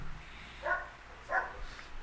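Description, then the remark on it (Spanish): A dog whimpers softly twice, two short, high, tonal whines about half a second apart, quiet, with faint background noise and no talking. “mira, hasta el perro está llorando, güey.”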